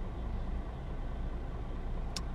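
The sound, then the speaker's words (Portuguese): A steady low rumble of car engine and road noise, heard while stuck in traffic at about 7:03, holds at an even level throughout, with a brief hissy burst near the end. No one speaks. “Yeah, desculpem, fez silêncio, passou aqui um jogador mesmo a correr, porque depois o trem começa às 7, são 7 e 3 e eu estou preso no trânsito.”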